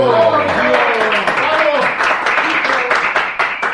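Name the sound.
applause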